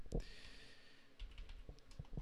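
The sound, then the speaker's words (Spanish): Someone types on a computer keyboard with the microphone sitting on top of it, in a few sparse, irregular keystrokes heard very close up as dull clicks and thumps over a quiet background hum, with no talking. “uy, tengo el micrófono encima del teclado, perdona”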